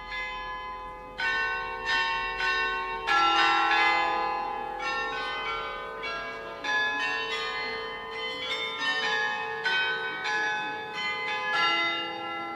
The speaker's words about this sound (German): Wenn es ruhig ist, kann man hier mehrmals am Tag etwas Besonderes hören. Vom Glockenspiel im Turm der neuen Residenz erklingen schon seit vielen hundert Jahren 35 Glocken.